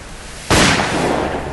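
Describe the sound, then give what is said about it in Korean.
A single sharp gunshot cracks out loudly over a dark sea during a wind-and-rain storm, then a dense, roaring wash of noise lingers, like wind and rain over open water. No voices. “뒤이어 총성이 까만 바다 위로 올린다”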